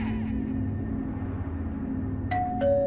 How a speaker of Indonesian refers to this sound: Hah? Bel pintu? Jam berapa ini? Astaga, jam 2.